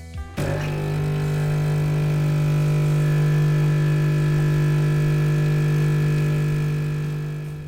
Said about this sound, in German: Unsere aufgenommene Kaffeemaschine klingt so.